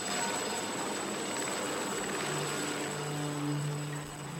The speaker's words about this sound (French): On prépare vite le matos, il y a l'hélico qui nous récupère, on va se faire treuiller dans la voie et puis euh, on verra ce qu'on fait sur place.